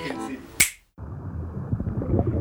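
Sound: finger snapping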